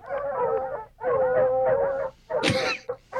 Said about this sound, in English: Why is it dogs again? Because they're searching. They're the hounds. They're out searching for the news for us.